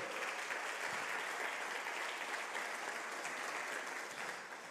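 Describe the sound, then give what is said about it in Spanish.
An audience applauds the name of the Lord together in a steady, dense wash of clapping that holds evenly for several seconds, easing slightly at the end, with no voices rising above it. “¿Cuántos pueden aplaudir el nombre del Señor?”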